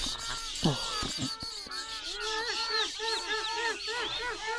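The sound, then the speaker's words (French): A crowd of seabirds circling over the sea squawks continuously, many overlapping harsh calls rising and falling in a busy, loud chorus that fills the whole stretch without pause. “les gars bien piaillent. Ils ont l'air contents. Et comme ils tournoient au-dessus de la mer”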